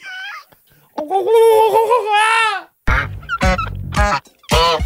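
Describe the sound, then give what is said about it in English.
Turkeys gobble loudly: a long warbling call, then several rapid, throaty bursts in quick succession, with no talking. “Ah, the turkeys are back.”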